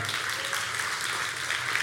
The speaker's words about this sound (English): So we're excited for that. Stay tuned. You can clap for that. That's good.